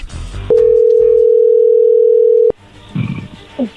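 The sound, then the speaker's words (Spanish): A telephone dialing tone: one loud, steady, low-pitched beep holds unbroken for about two seconds, then cuts off abruptly, followed by faint rustling and murmurs. “se está marcando, no haga ruido.”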